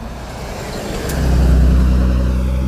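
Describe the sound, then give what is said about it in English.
A UPS delivery truck rumbles past, its low engine drone swelling from about a second in and holding loud and steady, with no voices. “UPS truck.”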